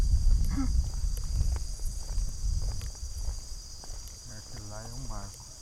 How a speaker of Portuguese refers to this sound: Olha só, estamos caminhando aqui, ó. Olha só os grilos cantando.